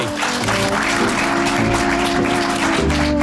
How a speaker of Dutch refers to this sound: dames en heren, mag ik toch nog één heel groot applaus voor